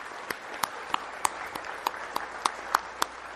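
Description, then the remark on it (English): A church audience applauds a preacher's recent retirement after 47 and a half years at the church in Tyro. Sharp, crisp claps land in a steady, even rhythm over a softer continuous wash of clapping, moderately loud, with no talking. “I think that's worth uh, an applause.”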